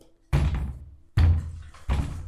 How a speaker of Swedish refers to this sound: Där står ni framför den här ganska, en sån dubbelport i, eh, i ett valv så som man mm. får mm. knacka så är det en liten, eh, liten dörr i porten så att säga. Mm. Ja, jag går fram. Mm. Knackar.